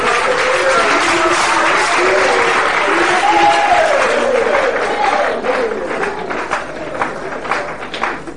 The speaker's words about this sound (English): All right, you are blessed. You may go back to your seats. Give them a clap offering. Amen.